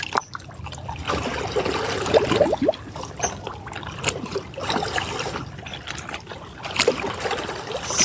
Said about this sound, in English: feel the energy of the water moving right now.